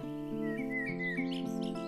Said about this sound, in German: während du deine Augen schließt und dem Gesang der Vögel lauschst.